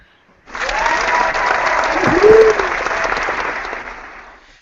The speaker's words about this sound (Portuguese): Então, assim, palmas pra mim. É, palmas pra você? Palmas pra mim, vai.